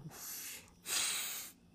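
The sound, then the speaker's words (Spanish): Two long, airy breaths drawn in through the nose, each a soft rushing hiss lasting most of a second with a brief pause between them, as a person practises a calming breathing technique, counting six seconds while inhaling. No talking. “Eh, básicamente, básicamente, este esto es, es una, una técnica, digamos que 15 segundos, que me gusta practicar, que me ayuda a calmarme, que me ayuda a relajarme también y es contar 6 segundos en los cuales inhalo,”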